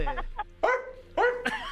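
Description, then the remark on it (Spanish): A dog barks in a handful of short, yelping bursts with whiny, almost talking-like tones, separated by brief pauses. “es un perro hablando el otro perro.”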